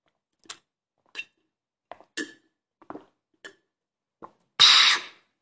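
Drinking water from a glass: a series of small wet gulps and swallowing clicks at uneven intervals, ending in a louder, breathy burst of air after the last sip.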